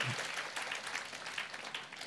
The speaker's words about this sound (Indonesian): Boleh tepuk tangan kita buat Tuhan. Tepuk tangan kita buat.